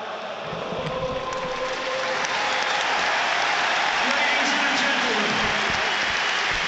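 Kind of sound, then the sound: crowd, stadium crowd applause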